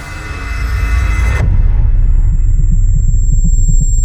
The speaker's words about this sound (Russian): Вертолет с диким гулом и шумом идет на посадку.